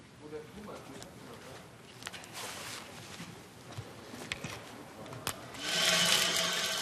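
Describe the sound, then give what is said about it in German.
Trainees bore a hole for house utility lines through a 12 cm thick wall with a water-cooled core drill: a steady, rough mechanical whir with scattered clicks and scrapes, swelling into a brighter, louder hiss of cutting and water near the end. “Das Wasser sorgt dafür, dass der Bohrer nicht heiß läuft und kaputt geht.”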